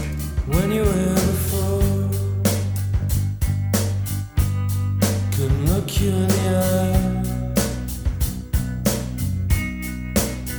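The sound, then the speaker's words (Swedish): A 1992 alternative rock song recording plays steadily and loud, with a dense band sound of guitars, bass and regular drum hits keeping a moderate beat throughout, and no one talking over it. “Det här är alltså … från 1992 med ….”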